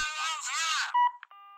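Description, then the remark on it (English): A burst of buzzy, warbling electronic noise gives way to short telephone beeps and then a steady, clear ringing tone, fairly loud. “Occasionally, my telephone will ring, but it's always because somebody has gotten my number by mistake.”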